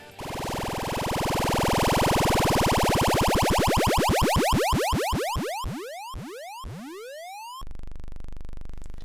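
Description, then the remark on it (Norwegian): A spinning prize wheel, a wheel of fortune spun in a studio, ticks rapidly at first, the clicks blurring together, then slows into widely spaced, ringing ticks before stopping, followed by a brief low hum. “Og det var lyden av jævlehjulet her i Emo-mandag.”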